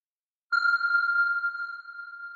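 A single underwater sonar ping, a sound pulse whose returning echo is used to measure distance, sounds after a brief silence: a clear, high electronic tone that rings on and slowly fades in a long, reverberant tail. No voices are present.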